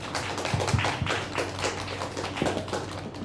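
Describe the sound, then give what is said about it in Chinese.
A crowd breaks into applause to welcome a Feng Chia University professor to speak, a dense, steady patter of many hands clapping for a few seconds, with a low hum underneath and no voices. “那我们就先让他来帮我们分享一下，大家掌声。”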